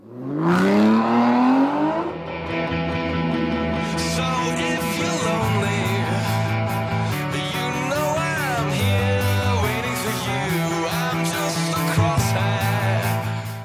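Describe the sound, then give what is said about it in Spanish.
The engine of a father's car revs up with a rising whine over the first couple of seconds, then settles into a loud, steady drone as the vehicle keeps driving. No one speaks. “Pero mi papá insistió mucho en que me llevara su auto.”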